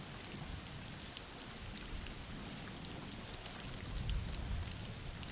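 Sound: rain falling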